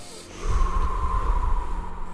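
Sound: breathing in through nose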